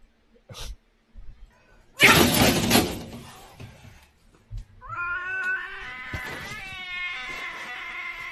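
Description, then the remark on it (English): A few soft thumps and a loud, noisy clatter as a cat falls over stiff against a wall, then it lets out a long, wavering yowl that keeps going, fairly loud, with no one talking. “Yeah, cats cats forgetting to take a breath.”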